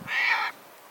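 A single harsh, rasping Caspian tern call lasting about half a second, loud and hoarse rather than shrill, then fading into near silence.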